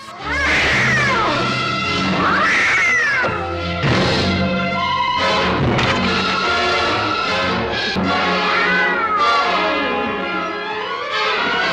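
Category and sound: animal, cat meowing and yowling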